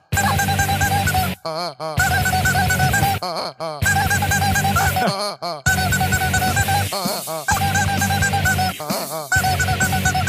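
Loud, honking squeals from a squeezed rubber chicken and rubber frog, in long strained bursts broken by brief gaps, harsh and nasal with a wavering pitch, no talking over them.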